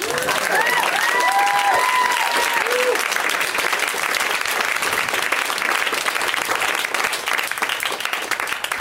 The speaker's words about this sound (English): I think you should clap for that because that will reset the room.